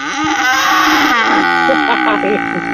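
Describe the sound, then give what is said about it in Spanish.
A voice imitates a zebu bull calf's bellow with a loud, drawn-out, groaning call that wavers in pitch for a few seconds, with other voices faintly underneath. “Es un becerrillo, una chocolate. Es un torito cebú.”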